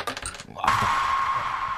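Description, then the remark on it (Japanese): Dice are thrown on a show, clattering in a quick rattle for about half a second, then a steady high ringing tone sustains over faint background noise until the end. “言ったらいいでしょ、もう、サイコロ。はい、じゃあいきますよ。はい。ドン。”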